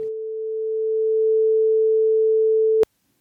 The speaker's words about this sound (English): This is a test of the mountain bike radio broadcasting system. Important information will follow this tone.